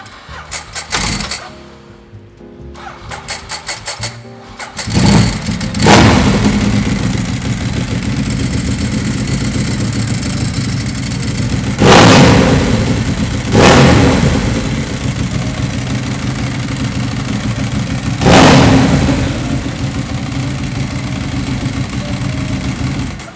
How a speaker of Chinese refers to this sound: 刚才听到的是号称摩托车界的法拉利杜卡迪的声音